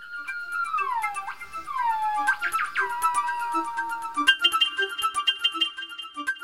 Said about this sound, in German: Aber sie sind gut zu hören. Und das schon von weitem. Ein bis zwei Kilometer tragen ihre Laute. Gibbons rufen aber nicht nur, Sie singen, solo und auch im Duett, wie diese Gelbwangenschopf-Gibbons aus Vietnam.